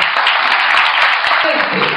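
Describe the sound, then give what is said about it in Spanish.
An auditorium audience applauds steadily, a dense wash of many hands clapping at once with a constant, even loudness throughout, no single claps standing out. “Y yo quiero que ustedes se den un aplauso porque los que vinieron hoy acá hicieron caso.”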